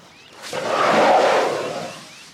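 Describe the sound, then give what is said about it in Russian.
A single loud, rough elephant call rises in a breathy swell, peaks, then slowly fades over about two seconds, heard alone with no talking. “Сейчас вы услышите звуки самого крупного наземного млекопитающего. Вы, конечно, поняли, что речь идет про слона.”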